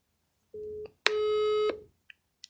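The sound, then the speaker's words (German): A telephone ringing tone as a call is placed to a friend: a short steady tone followed by a longer, louder buzzing tone, with a few faint clicks afterward and no voices. “Jetzt äh, probieren wir grad mal ihr anzuleuten.”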